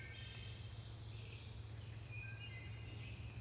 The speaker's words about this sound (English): And very likely these trees, at least some of them, a good deal of them, will still be here and the birds will still be chirping.